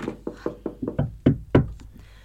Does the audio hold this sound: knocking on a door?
yes